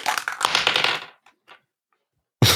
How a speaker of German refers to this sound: Ich, ich würfel mal.